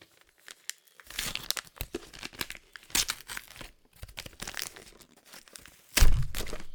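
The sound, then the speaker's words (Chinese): Paper crinkling and tearing in irregular bursts, with sharp rips and rustling scrunches, ending in a louder, heavier rustle and thump of wrapping paper being pulled open as a gift is unwrapped; the gift is a vibrating sex toy. “好，所以现在你要先开， 我们先开好的好了。”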